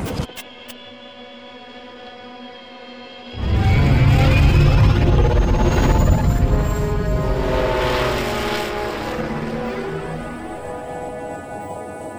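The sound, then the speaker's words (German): A low electronic hum gives way to a loud, sustained engine roar of a flying sphere craft in flight, droning steadily with whining tonal overtones, continuous, with no voices. “Sie haben mich in eine Flugkugel geschafft.”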